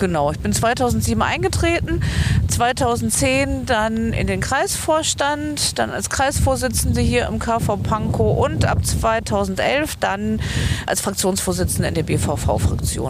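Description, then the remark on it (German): A woman talks steadily outdoors at the water tower in the Kollwitzkiez, Prenzlauer Berg, on a fairly windy day, while a constant low rumble of wind buffets the microphone underneath her voice for the whole stretch. “Also man hört auch im Hintergrund, es ist heute ein relativ windiger Tag.”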